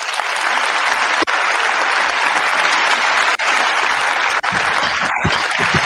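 Loud, sustained audience applause given to welcome a guest onto a Spanish-language online program, with dense, even clapping across the whole stretch, no voices rising above it, and only a couple of momentary dips before it carries on.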